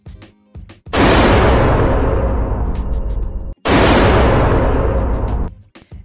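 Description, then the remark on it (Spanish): Two loud gunshots from a firearm, a few seconds apart, each a sharp blast followed by a long, rumbling echo that fades slowly. No one speaks. “Y acá vamos con el ejemplo del sonido fuerte, que es el disparo de un arma de fuego.”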